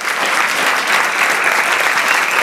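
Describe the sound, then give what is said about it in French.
A crowd claps steadily and loudly to welcome guests, dense sustained applause with no pauses or voices standing out. “Je vous demande d'accueillir très fort”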